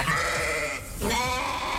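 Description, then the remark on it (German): Sheep bleating, two overlapping wavering calls with a brief dip between them, loud and clear with no talking. “Nee, das sind jetzt Schafe, aber heute Abend geht es um Ziegen und Böcke.”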